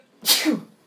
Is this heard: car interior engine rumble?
no